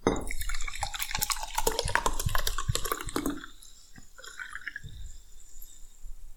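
Water drips in a quick, irregular patter of crisp drops for a few seconds, then thins to a few scattered drips with quiet gaps. No one speaks.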